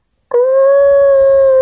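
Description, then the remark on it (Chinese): A person's voice imitates the mournful howl of a dog barking at night, its sound turning from fierce to forlorn: one long, loud, steady wail that starts abruptly and holds a level, fairly high pitch, with a faint low rumble beneath. “问题是，是对着他来吠的，而吠的那个声音呢，是从凶到凄凉的，是那种呜呜呜呜”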